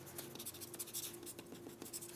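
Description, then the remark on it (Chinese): Writing on a board as a stock commentator writes that Largan (大立光) shares are to be bought and held long: a run of quick, scratchy strokes, bursts of dry hiss rising and falling in a steady, uneven rhythm, with a faint low hum underneath and no voices. “这个我再写一次，大立光买进会放长。”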